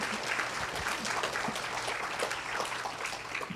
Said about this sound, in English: So I, I, really think we should give a round of applause to the youth group leaders.